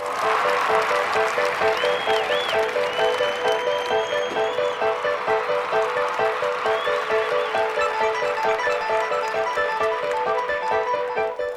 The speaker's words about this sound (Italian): Il barone Lamberto sta entrando fra gli applausi generali, sorride fresco come un mattino di primavera.